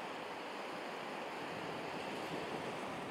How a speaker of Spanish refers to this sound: De fondo, creo que escucháis el mar, ¿no?